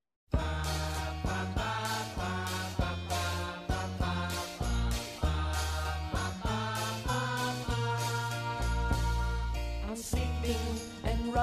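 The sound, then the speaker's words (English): An instrumental pop song intro with a 1970s feel plays loud and steady: bright keyboard chords and bass in a bouncy, repeating rhythm that builds with punchy accents, no voices yet. “Let's have our first music break of the episode.”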